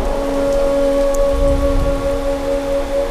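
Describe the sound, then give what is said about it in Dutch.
Steady, continuous summer rainfall with thunderstorms fills the scene with a dense hiss, while a low sustained droning tone and faint rumbling hum underneath throughout. No one speaks. “De hele zomer zal het blijven regenen en onweren.”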